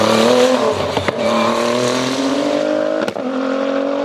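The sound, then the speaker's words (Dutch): A Renault RS01 race car engine roars loudly and steadily, its harmonics drifting slowly down in pitch with two brief sharp clicks or gear-shift blips along the way. No one speaks. “Rijk de Renault RS01 voor Renault Nederland.”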